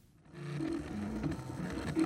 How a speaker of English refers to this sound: Hey, this 3D printer is cool.